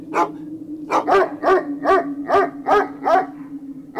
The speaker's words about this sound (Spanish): Y de pronto mi perro que estaba en la terraza empezó a ladrar desesperadamente.